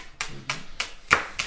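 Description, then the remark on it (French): A knife chops leeks on a cutting board while cooking: five crisp, evenly spaced strokes about a third of a second apart, moderately loud, with no talking. “Et donc, ce qu'on entend là, c'est le bruit de ton couteau euh, sur des poireaux.”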